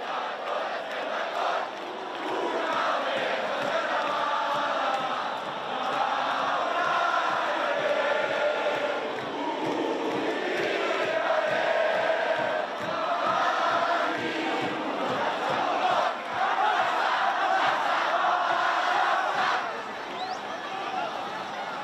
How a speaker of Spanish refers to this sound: y con esa algarabía que se escucha al fondo, esa alegría que se respiraba por las calles de Barcelona